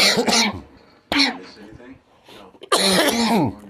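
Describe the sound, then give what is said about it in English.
Three harsh, throaty coughs spaced about a second apart, each a loud raspy burst that trails off, with a rougher throat-clearing quality. “Apparently, they're they're mad at me, so they're shooting stuff in my throat, or they're making me cough somehow.”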